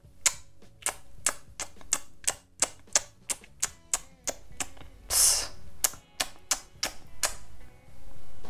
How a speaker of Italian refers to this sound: A me capita spesso di far schioccare la lingua quando sono annoiata, quando sono da sola, per una sorta di divertimento. Così.